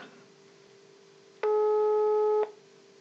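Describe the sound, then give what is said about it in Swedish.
A single one-second burst of a telephone ringback tone, the steady buzzy pulse heard while a call is placed to a guest joining by phone, sounding over a faint line hum with no voices. “Så vi eh, ringer upp han nu och ser om han vill svara.”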